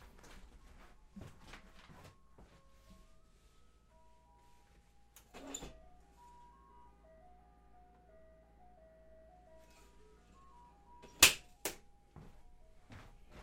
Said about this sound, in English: There's a fucking ice cream truck in front of my house. Now, I don't mind ice cream trucks. I like ice cream trucks. I don't even like mind the ridiculous songs. I like the ridiculous song they play.